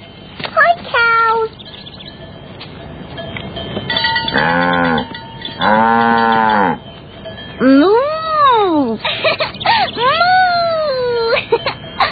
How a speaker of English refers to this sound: Caillou had not seen cows very often. He was excited to see them up close.